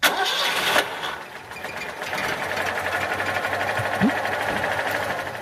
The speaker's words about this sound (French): Alors ah qu'est-ce que c'est C'est une deux chevaux. Bah, c'est une de chevaux, bien sûr. Un démarrage de, deux chevaux pour rendre hommage.